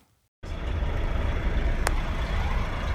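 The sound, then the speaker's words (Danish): A heavy DAF truck engine rumbles with a steady low drone after a short quiet start, joined by a brief hiss partway through, at a truck stop in Malaga where DAF trucks drive in and out, with no voices present. “Jeg står her på et truckstop i Malaga, hvor øh, daf de kører ind og ud.”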